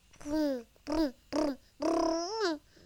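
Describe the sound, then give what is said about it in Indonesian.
A young child vocally imitates a motorcycle engine in four voiced bursts, the last one longer with a rising and falling pitch like revving. “Oh gitu ya suara motor”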